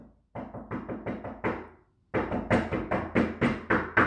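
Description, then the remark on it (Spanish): Two bursts of knocking on a door: a run of about six sharp raps, a brief pause, then a louder, quicker series of about eight, with no talking. “No, Daniel no toca la puerta, Daniel no toca el timbre”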